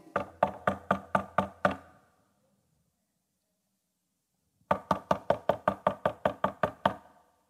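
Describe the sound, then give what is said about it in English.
Two bursts of rapid, loud knocking on a door, about seven sharp raps each, separated by a few seconds of silence. The knocks sound firm, with no voices. “Jesus said, I stand at the door and I'm”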